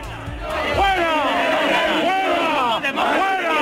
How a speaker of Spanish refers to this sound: Los manifestantes señalaron a los violentos infiltrados, ahí lo oyen fuera, y han conseguido sacarlos de la concentración.